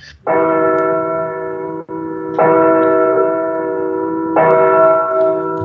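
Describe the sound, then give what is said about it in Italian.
Church bells toll slowly in a measured death knell, three loud, resonant strikes with long ringing sustain, each new stroke sounding as the previous one still hums. No voices. “Allora, allora, queste campane a morto eh, danno il là per il tuo spiegone.”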